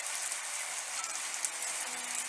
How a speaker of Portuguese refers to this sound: Vocês conseguem perceber o barulho da chuva e um piano bem suave no fundo? Se vocês fecharem os olhos, vocês vão exatamente imaginar que o dia está assim, chovendo intensamente.